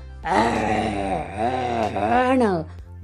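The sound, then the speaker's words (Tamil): A man's voice imitates the roar of a lion caught in a net in the forest, a long, loud, rough groaning cry that swells and wavers in pitch for about two seconds before trailing off, with no speech around it. “கர்ஜனை கொடுக்க ஆரம்பிச்சது காட்டில் இருக்க அத்தனை மிருகத்துக்கும் பயம் வந்துருச்சு ஆகா இந்த சிங்கம் கத்துறதே ரொம்ப பயமாக இருக்கே”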